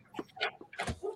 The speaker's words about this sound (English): sorry the dogs are barking because Matt's home from the fire hall